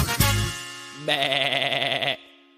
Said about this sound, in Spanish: Esa es la oveja, la conozco bien.